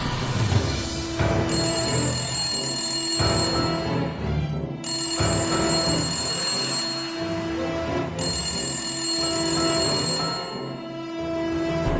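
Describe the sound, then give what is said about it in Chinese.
A telephone bell rings insistently in repeated long bursts with brief gaps, in an empty house, a bright metallic jangle with high ringing tones over a low droning background. No one speaks. “铃声继续着”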